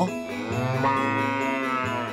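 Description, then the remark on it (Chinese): A dairy cow being sent to pasture to graze lets out one long, drawn-out moo, low and steady with a slight rise in pitch, filling about two seconds with no one talking over it. “哦，对了，还要让奶牛去牧场吃草。”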